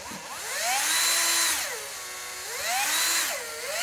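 A cordless drill whirs in repeated bursts, its motor pitch climbing and falling as the trigger is squeezed and eased, fairly loud with no voices.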